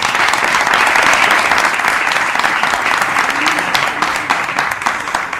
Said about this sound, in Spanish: Le pido un aplauso para él.